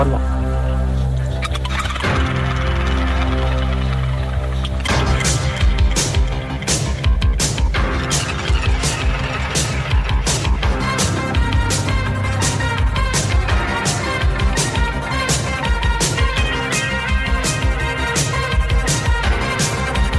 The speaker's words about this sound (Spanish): … también fue eh, fue mm, sintonía, banda sonora de la Vuelta Ciclista